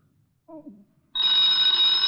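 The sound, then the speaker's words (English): A loud telephone bell suddenly starts ringing and keeps up a continuous, buzzy ring to the end, preceded by a brief murmur of a voice. “Uh, get the phone”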